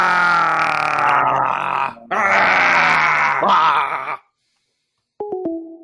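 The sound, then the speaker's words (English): A loud, raw scream held for about four seconds, broken by one brief pause, recorded over a phone line for the Just Scream scream-recording hotline, then silence followed by a few short electronic beeps. “That is the Give Me Fives contribution to Just Scream.”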